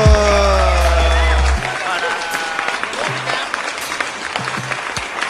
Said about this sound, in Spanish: aplauso.